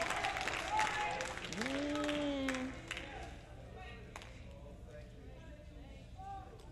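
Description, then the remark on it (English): An audience claps and shouts praise to God in an uneven, overlapping patter while voices call out and a single voice rises in a sung or shouted tone; the clapping thins and quiets toward the end. “Go ahead and sing. Go ahead and clap.”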